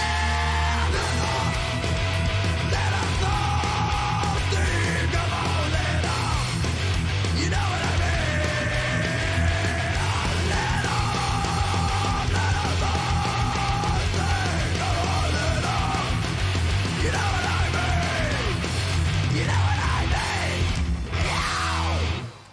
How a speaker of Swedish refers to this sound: Ja, de, där, de där skriken är ju skitbra. Upp mer i registret tycker jag.